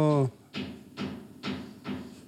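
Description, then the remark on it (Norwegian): Steady hammering from construction work: four evenly spaced, sharp blows about half a second apart, following a brief voice at the start. “Nå banker det. Skikkelig. Ja, det, de driver og bygger ja.”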